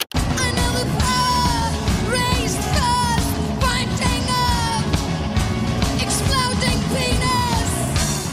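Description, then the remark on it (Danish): A loud, raw live punk performance from a 1984 concert at the Ungdomshuset youth house, Jagtvej 69, Copenhagen, Denmark: distorted guitars and pounding drums form a dense, unbroken wall of sound while a female singer yells and shouts over the top throughout. “Hun er i front for punkbandet …, og det lyder sådan her.”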